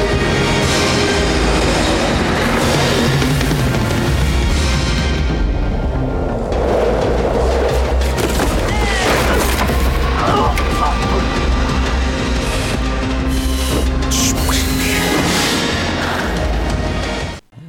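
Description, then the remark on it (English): Loud, dense film race-scene sound effects: a continuous mechanical roar layered with metallic screeches and crunching impacts as a man crashes through a barn fence and vehicles skid off the road and fly off cliffs, building steadily, with no voices, then cutting off abruptly at the end. “One of those was a dude flying through a fucking barn fence.”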